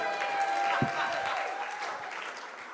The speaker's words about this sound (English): And he's doing a tremendous job, right? Is there a round of applause for Aaron?